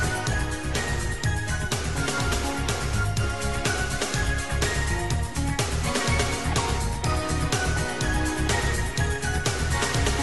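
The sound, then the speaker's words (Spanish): An upbeat football anthem, the song released as England's World Cup anthem, plays loud and full, with a steady driving beat, bright synth and bass layers, and no talking over it for the whole stretch. “que ofrecieron como himno de Inglaterra para el Mundial y que es … y suena así”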